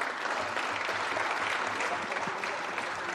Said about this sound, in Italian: mi inserisco sugli applausi.